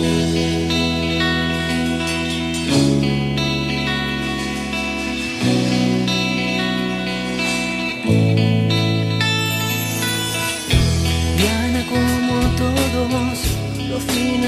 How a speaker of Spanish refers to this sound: Y eso, y vamos con este tema en este programa, ¿cómo es? Porque mm, música pop, claro que sí. Eso es.